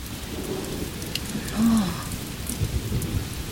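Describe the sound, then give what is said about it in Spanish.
Steady, heavy rain hisses throughout, with a deep roll of thunder swelling briefly in the middle before easing back into the downpour. No one speaks. “¡Tormenta!”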